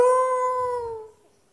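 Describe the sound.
A single high, drawn-out whine from a human voice mimicking a crying puppy, held steady for about a second, sliding slightly lower, then trailing off into quiet.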